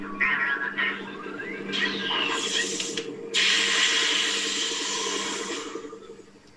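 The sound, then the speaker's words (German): An Imperial probe droid on an ice planet, as a sci-fi sound effect: electronic warbling tones and mechanical chirps over a steady low hum, then a loud hissing, crackling burst that sustains before fading out. “Hm, äh, korrekt gewesen wäre A, nämlich diese oh, imperiale Proctroid.”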